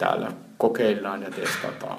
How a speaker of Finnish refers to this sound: kuten kuuluu, täällä on aikamoinen kaiku taustalla